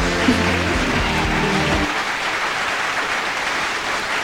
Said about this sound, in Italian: che applauso.